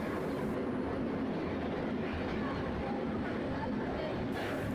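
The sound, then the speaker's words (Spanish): A train rolls steadily along the rails, with a loud, continuous low rumble and dense rattling noise that holds unbroken for the whole stretch. “Mi camino hacia la urbe era de dos a tres horas en el tráfico horrendo, hasta que apareció el tren y cambió a una hora.”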